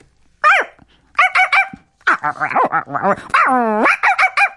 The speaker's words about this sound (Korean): 네, 애완견 담비입니다.